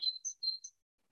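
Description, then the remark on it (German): A short series of four high, thin bird chirps in quick succession, clear, with no other sounds around them. “Und jedes Mal, wenn du einen Vogel zwitschern hörst, dann kommst du wieder genau zurück an diesen Ort, an dieses Gefühl, Piep, piep, piep, piep, piep.”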